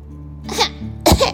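cough

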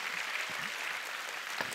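audience applause

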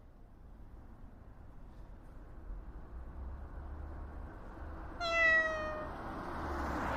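cat meowing

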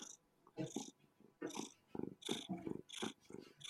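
cat purring

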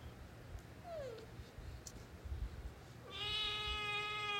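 cat meowing

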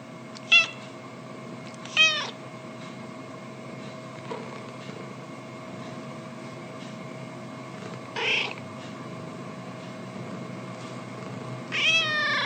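cat meowing

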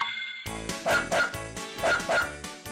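dog barking

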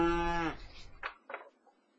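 cow mooing

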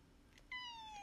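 kitten meowing

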